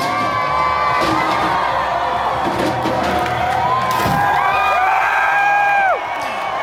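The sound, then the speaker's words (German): A large crowd of Black Lives Matter protesters in Bristol, England, cheers and shouts loudly outdoors as the statue of slave trader Edward Colston is thrown into the harbour, with rising whoops and yells layered over a dense, continuous roar of voices that stays intense throughout. “Das sind Black Lives Matter Protestierende, die in Bristol die Statue von Edward Colston, einem Sklavenhändler, in das Hafenbecken werfen.”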